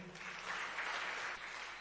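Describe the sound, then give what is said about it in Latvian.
A crowd claps steadily after a prayer, greeting a young couple who are to make their wedding vows, a dense wash of many hands applauding together at a fairly even volume throughout, with no voices standing out. “Jēzus Kristus vārdā. Āmen! un sveiksim ar aplausiem.”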